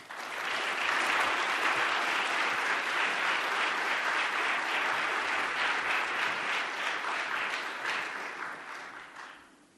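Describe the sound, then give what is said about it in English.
Sustained applause from a large audience welcoming a speaker, a dense wash of many hands clapping at steady volume for several seconds before tapering off toward the end. “Will you please give a warm welcome to Miss Lisa Sharon Harper?”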